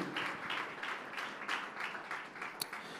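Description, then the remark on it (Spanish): A church audience applauds in praise to the Lord, many hands clapping in a steady, dense, continuous patter with a few brief swells and one sharp crack near the end; no one speaks over it. “Ese aplauso es de alabanza para el Señor.”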